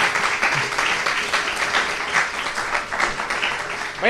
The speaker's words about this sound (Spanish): Un aplauso también para ella.